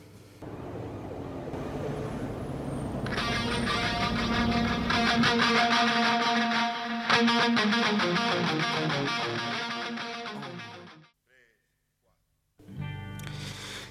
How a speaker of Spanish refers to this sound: ¿Por qué no escuchamos mejor un poco el tema? Escuchemos … de ….